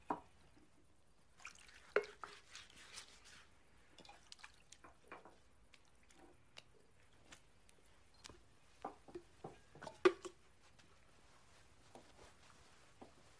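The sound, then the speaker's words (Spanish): Quiet water splashes and drips at irregular intervals as water is poured into a basin and the disciples' feet are washed and dried with a towel, with no voices. “Luego echó agua en una vasija y comenzó a lavar los pies de los discípulos y a secárselos con la toalla que tenía ceñida.”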